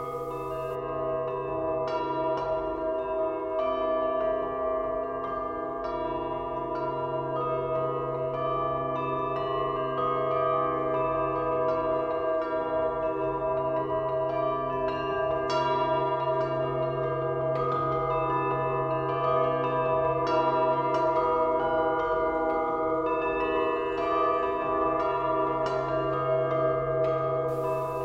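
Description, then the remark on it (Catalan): A portable bell-tower instrument, the "campanario portativo" created by Llorenç Barberà for chamber concerts, rings continuously, with many bells struck in quick irregular succession, their bright metallic tones overlapping into a dense, shimmering wash over a low steady hum, with no voices. “Escoltem el que Llorenç Barbera anomena campanario portativo, un instrument creat per ell mateix per a concerts de cambra.”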